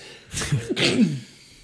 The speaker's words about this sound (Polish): Jest to jeszcze raz kichnę chyba.